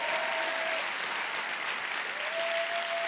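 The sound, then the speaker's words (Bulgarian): An audience applauds in a steady, dense wash of clapping that lasts the whole stretch, with a faint thin whistling tone briefly at the start and again near the end. “О, ако ръкопляскаш, ръкопляскай, като че си навярваш.”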